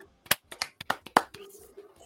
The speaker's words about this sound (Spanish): Un homenaje para él. Vaya un aplauso al cielo, maestro.